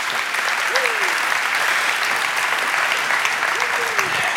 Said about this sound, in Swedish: Ska vi ge honom en varm applåd? Tack.